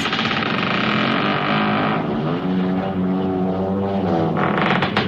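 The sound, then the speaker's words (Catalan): Heavy temple doors grind open with a loud, steady rumbling drone whose pitch sags and shifts midway, a continuous mechanical groan lasting several seconds with no voices. “El password és correcte. Obrim portes.”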